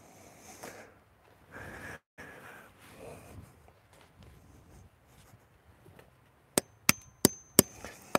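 A hammer strikes wood five times in a quick, slightly uneven, sharp rhythm, after several seconds of quieter rustling and handling noises.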